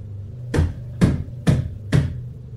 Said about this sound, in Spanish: En ese momento escuchamos que tocaron nuevamente, pero esta vez detrás de nosotros, en la puerta del baño de la casa.